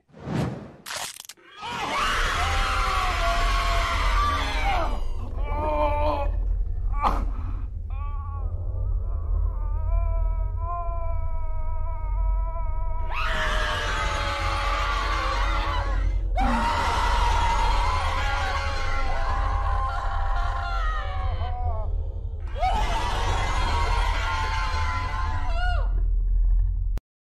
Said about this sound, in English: Like that's a lot of shouting.